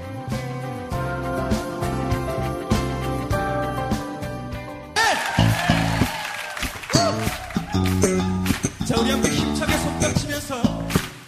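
Upbeat Christian praise music with people clapping along in steady rhythm, keeping time to the beat; the clapping grows fuller and louder about halfway through as the song swells.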